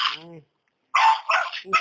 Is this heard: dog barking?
yes